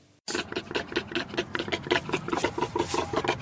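A rapid, steady series of short, rough grunts from a warthog, its normal call, fairly loud, pulsing continuously for about three seconds after a brief silence.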